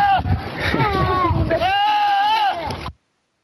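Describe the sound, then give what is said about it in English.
A goat lets out a loud, drawn-out scream that sounds almost human, its pitch wavering for about three seconds before cutting off abruptly. It is clear, with no other sounds. “It is the screaming goat.”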